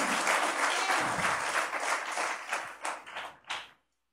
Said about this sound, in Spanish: Si vas a aplaudir, hazlo con toda la fuerza. Porque es para el Señor Jesucristo.